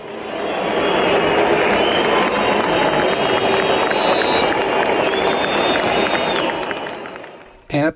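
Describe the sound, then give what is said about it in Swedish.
A large stadium crowd at the Supercup match arena in Riyadh, Saudi Arabia, during a minute of silence for Gigi Riva, roars steadily, with shrill whistles from the Saudi crowd cutting through and patchy clapping from travelling Italian fans mixed in. The dense, loud noise holds for several seconds before cutting off abruptly. “ett mischmasch av lite applåder från tillresta italienska fans och visslingar från den saudiska publiken.”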